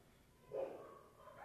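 A dog named Cyrus, 14 years old, gives a single short, moderately loud bark against a faint background hum, with no other barks following.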